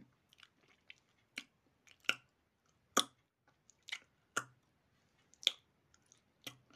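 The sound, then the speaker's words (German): Someone chews corn, with about a dozen sharp, crunchy bites at an irregular pace, some louder than others, and nobody speaking. “Ich hatte gerade so einen coolen Sound, dieses Mais.”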